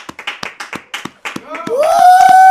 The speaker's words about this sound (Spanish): Eso, aplaude, aplaude. Ra, ra, ra. Aplaude.